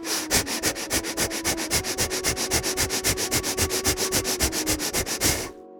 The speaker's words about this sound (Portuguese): respirando aceleradamente.